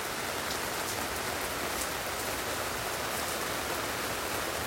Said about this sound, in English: take a moment to just settle in, and we're just going to breathe, listen to the rain, and just be present.